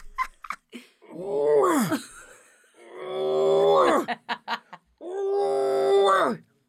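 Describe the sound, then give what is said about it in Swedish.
A person imitates a rutting moose call, as used to lure a moose and learned from a hunter, with three long, loud, nasal groans, each rising and then falling in pitch, separated by short breaths and small clicking noises. “det här är också en brunstig älg”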